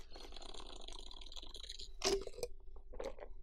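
A slurping sip of hot coffee, a drawn-out wet intake followed by a few short gulping, swallowing sounds, with no talking.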